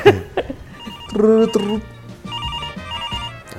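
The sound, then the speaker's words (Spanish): A telephone rings with bright, repeating electronic tones in a steady pulsing pattern, following brief voices and laughter at the start; the ring is clear. “A ver, llama, llama.”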